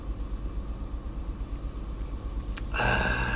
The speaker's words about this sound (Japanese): ちょっと今日はですね、朝、めっちゃ寒いんで、それで車の中でエンジンつけて、ちょっと温まりながら収録していきたいと思います。